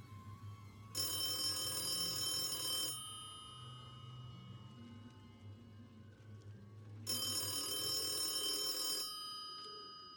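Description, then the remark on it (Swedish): A ringing signal from an unplugged game console in a living room sounds at night in two bursts of about two seconds each, separated by a pause of several seconds, bright, over a low background hum. “Det ringer från spelet. Det är inte ikopplat.”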